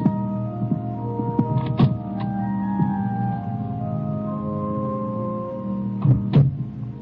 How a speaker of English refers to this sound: As I turn around and the door clicks softly shut behind me, I just stare at the casket at the far end of the room.